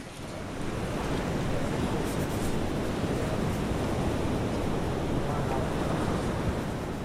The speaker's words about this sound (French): C'est déjà mieux avec du son de la pluie ou du, vent, euh, le son de l'océan.